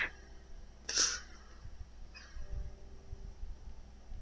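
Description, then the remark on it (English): Video game dogs growl and snarl in low, rumbling bursts, with a sharp yelping flare early on; the sounds are fairly quiet and no one speaks. “Oh my god, these fucking dogs.”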